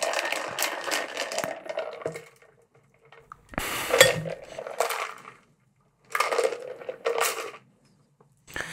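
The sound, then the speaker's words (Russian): A whisky sour cocktail is strained from a shaker through a half-turn strainer into two glasses, each pour a short burst of splashing liquid with ice rattling and clinking against metal, with no talking. “Мы наливаем это в два бокала.”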